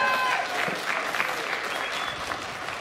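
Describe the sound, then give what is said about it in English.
An audience breaks into sustained applause welcoming a guest coming up to join the host, a dense wash of many hands clapping at steady loudness, with a few faint whistles or cheers mixed in throughout. “Would you guys give her a round of applause?”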